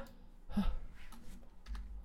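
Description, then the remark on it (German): A few quiet computer keyboard keys are pressed, with one sharper keystroke early on and another a second later, sparse and irregular against a low room hum with no talking. “Ich habe glaube ich nicht Steuerung vorgemacht das ist sehr gut.”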